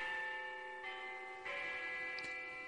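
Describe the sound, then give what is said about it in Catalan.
A clock chimes with bell-like tones, about three strikes in a slow sequence, each ringing on and overlapping the last, with no voices present. “Para ja amb les campanes! Para amb les campanes! Perdoni, és que és el meu rellotge, que sí, està una mica fort.”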